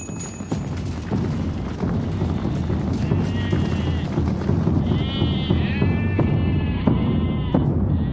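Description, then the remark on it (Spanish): About ten goats, hung by their hind legs from a tree in an army camp with drums placed beneath them, bleat repeatedly, their wavering cries overlapping against a dense, rumbling background with occasional sharp knocks, the bleating growing more insistent toward the end. “La noche anterior, Pizza y Yu ordenó capturar unas 10 cabras. Las sujetaron por las patas traseras y las colgaron de un árbol.”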